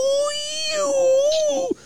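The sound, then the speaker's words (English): A voice imitates a failing car alternator: a steady, high whine that wavers slightly in pitch for almost two seconds, then drops abruptly and stops. “it's your alternator's going out, and I think the radiator's leaking”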